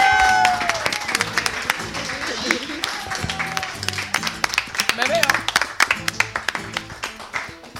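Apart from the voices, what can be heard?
loud applause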